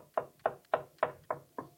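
Six firm knocks on a door in a steady, even rhythm, fairly loud, with no voices and quiet gaps between each rap.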